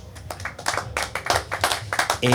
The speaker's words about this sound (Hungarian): Egy nagy tapsot nektek is,